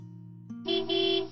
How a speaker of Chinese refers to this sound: 喇叭声响起，前方一辆宾利稳稳地停在路边，车窗摇下一半